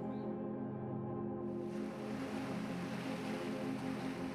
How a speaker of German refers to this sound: Ein wohlvertrautes Rauschen gibt jetzt den Takt des Lebens an. Es sind die Wellen des weiten Ozeans, die ganz in der Nähe an schroffen Felsen zerschellen.